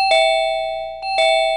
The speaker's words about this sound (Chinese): X 神探按了几下门铃，房里没有任何反应。